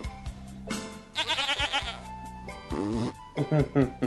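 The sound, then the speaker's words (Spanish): A sheep on a ranch lets out a wavering, sputtering fart-like noise, followed by shorter bleats, with people talking in the background. “Se supone, se supone que se echó un pedo el, el borrego, claro, ¿no?”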